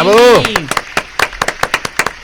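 A brief whooping cheer with a rising and falling pitch, followed by a quick, steady run of about a dozen sharp hand claps, applause that sounds like only a few people.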